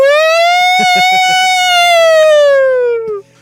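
A loud evacuation siren wails in one long sustained tone, swelling slightly and then sliding down before cutting off, with a few muffled thumps underneath early on.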